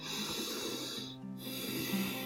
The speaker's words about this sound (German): Atmen Sie tief ein